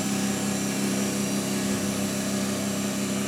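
An anaerobic work chamber, used for processing peat samples under oxygen-free conditions, running after being switched on: a steady, fairly loud mechanical drone with a low hum and broad airy hiss, unchanging throughout, with no voices.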